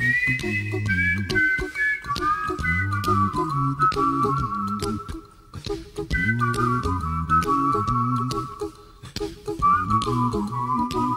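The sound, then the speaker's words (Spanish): A bright, cheerful whistled melody rides clearly over a bouncy song backing, with steady rhythm below and the whistled tune gliding and repeating in short upbeat phrases. “ahora con silbidito alegre”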